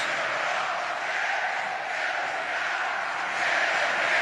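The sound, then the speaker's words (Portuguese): A huge stadium crowd of football fans sings the anthem together, conducted by the top scorer of the day, a dense, steady roar of thousands of voices that holds at an even loudness and swells slightly toward the end. “E agora a torcida canta o hino.”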